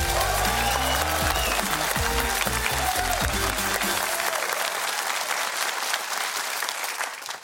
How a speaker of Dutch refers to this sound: Dus geef haar een ongelooflijk mind-blowing applaus.